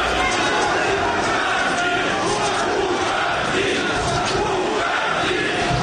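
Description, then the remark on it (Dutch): A large crowd of workers shouts and chants together in a loud, continuous roar, rhythmic group chanting for their leader, Lukashenko, to step down and go away, swelling over dense background noise of many voices, as he stands at a lectern. “Ja, je hoort oega die, oega die, jan eh, stap op, vertrek, ga weg.”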